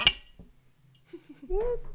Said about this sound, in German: Prost. Oh nein, jetzt klingt es halt scheiße, ne? Warte. Wir klingen ja, das ist mit. der Nachteil mit einer Bierflasche, aber ich kann auch nochmal für dich anstoßen.